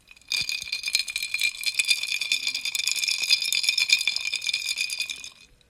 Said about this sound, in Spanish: Y el verano para mí es iced coffee en la mañana, en la tarde y en la noche. Así que primero disfruten este sonido del café antes de empezar este capítulo.